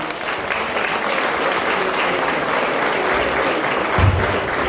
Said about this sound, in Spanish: Muchísimas gracias por el apoyo, por la invitación. Eh, gracias. Gracias, un aplauso, por favor.